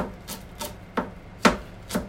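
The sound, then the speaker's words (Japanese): A kitchen knife, which has been getting somewhat dull, minces green onion on a cutting board in five separate, evenly spaced strokes, each a crisp knock, with the later strokes landing harder than the first ones. “適当にネギをこれもみじん切りにしていきます”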